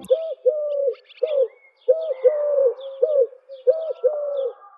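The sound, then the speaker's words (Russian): Pigeons coo in repeated low, rounded phrases that come in three clear bursts, with faint higher chirps from other birds scattered in the background. No voices are heard. “В конце 50-х в башне решили устроить голубятню. Закупили несколько пар птиц, оборудовали кормушки, было очень красиво, но пассажиры жаловались.”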